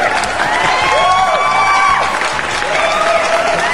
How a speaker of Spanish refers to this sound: ¡Aplausos, chingada madre!